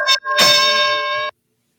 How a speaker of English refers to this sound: So yeah, I mean, we can ring the bell on this match. I think we can.